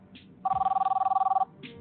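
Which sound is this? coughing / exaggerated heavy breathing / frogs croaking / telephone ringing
telephone ringing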